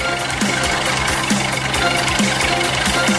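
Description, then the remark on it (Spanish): A car engine idles steadily with a rough, rattling drone and a low knock repeating about once a second, loud and continuous with no voices over it. The car is being left running. “Se va a quedar encendido el carro.”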